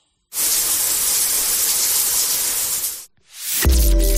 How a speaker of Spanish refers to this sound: Yo creo que es el agua cayendo a la ducha, el chorro de agua cayendo de la ducha.